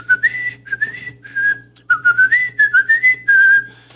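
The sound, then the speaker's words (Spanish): Someone whistles a melody, clear sliding notes grouped into short phrases separated by brief pauses, with a faint low hum underneath and no talking. “de repente el vato empieza a chiflar, a chiflar.”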